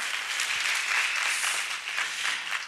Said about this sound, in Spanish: si le pueden dar un aplauso.